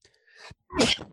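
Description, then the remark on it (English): A single forceful sneeze by a man: a short breathy intake builds up, then a sharp explosive burst of noise about a second long, with no talking. “oh, he's he's sneezing away.”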